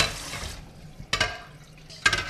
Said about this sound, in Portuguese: Vou só continua ali a lavar a louça.